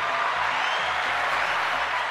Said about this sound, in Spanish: Aplauso a Star Records. Sí, señor.